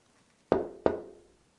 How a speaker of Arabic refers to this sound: هذا صوت الطرق على الباب وهذا أيضا يمكن التعبير عنه بالكلمة طن طن